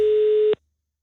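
A single steady telephone ringing tone of an outgoing call to Skjern, loud, holding one pitch for about half a second before cutting off abruptly into silence.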